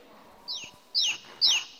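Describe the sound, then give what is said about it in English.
A newly hatched chick cheeps three times as its head pops out of the cracked egg, each peep a shrill, downward-sliding chirp spaced about half a second apart and growing louder, with no other sounds. “A head pops out of a little chick.”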